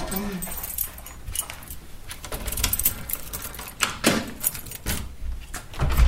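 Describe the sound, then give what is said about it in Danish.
Keys jangle and clink while a school door is unlocked, a run of irregular metallic rattles and clicks, with some low background noise and faint voices. “Og du har en nøgle med, kan jeg se, så vi kan låse skolen af igen, når vi er kommet ind.”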